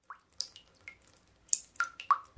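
Water drips from a tap in a bathroom in a steady series of clear, ringing plinks, about six drops in quick succession, bright against a quiet background with no voices.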